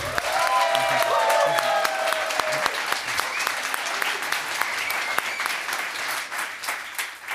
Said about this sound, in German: So Leute, ihr entscheidet jetzt, wer die Tasche gewinnen kann. Einmal bitte den Applaus für Terry Halliburton. Einmal bitte den Applaus für Mahmoud Abdul Rauf.